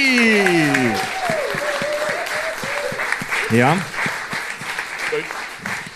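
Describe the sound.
An audience claps steadily in a dense patter of hand claps lasting the whole stretch, while a man's voice speaks over the applause.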